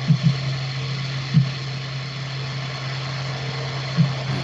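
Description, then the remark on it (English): A steady, loud mechanical rumble with a low droning hum fills the background, like a car wash, broken by a few soft low thumps near the start and end. “Sounds like you're in a uh, car wash, though.”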